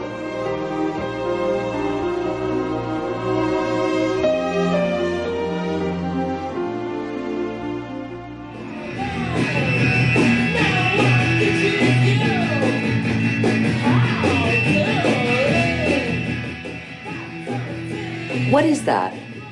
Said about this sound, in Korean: 집안을 뒤흔드는 시끄러운 음악 소리에 참다 못한 도르시아가 묻습니다. 도대체 무슨 밴드야? Just be pretty. 그냥 예쁜 음악 좀 들으면 안 돼?